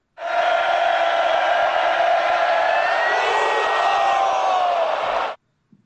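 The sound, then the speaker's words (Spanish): A crowd of fans cheers loudly and steadily for about five seconds, a dense roar of many voices with some rising shouts and whoops, then cuts off abruptly. “Oye, Saldívar, así de fácil, la porra te saluda.”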